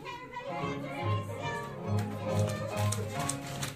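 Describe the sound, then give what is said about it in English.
A group of children makes rhythmic clip-clop sounds imitating a galloping horse, a steady patter of taps and voiced beats running for a few seconds amid lively group noise. “It will be your job to make the sound of a horse galloping.”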